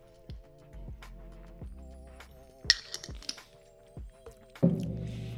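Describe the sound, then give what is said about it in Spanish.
Someone sips water, with a series of soft wet gulps and mouth clicks at a steady pace over a faint background hum. “Toma un poco de agua.”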